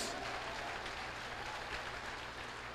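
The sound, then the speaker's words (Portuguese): Steady, dense applause from a sizable audience, many hands clapping at once in a continuous wash of sound that holds evenly without pause. “Pode aplaudir que ele merece.”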